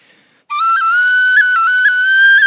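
A loud whistled melody plays a slow theme tune from the film Titanic, one sustained bright tone stepping gently up and down in pitch for about two seconds, with no talking.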